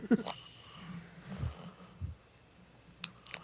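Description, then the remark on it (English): A cat purring and snoring, with soft low rumbles and breathy snorts recurring irregularly over a few seconds, quiet and intimate, with no one speaking. “Just some like purr snoring.”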